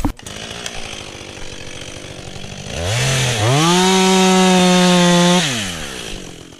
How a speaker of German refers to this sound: Im Wald bei Konradswiese ist das laute Geräusch von Motorsägen zu hören.